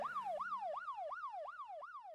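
A police car siren wails as the car pulls up, in a rapid, repeating whoop, each tone sweeping down then snapping back up about six times in quick succession, loud with no voices.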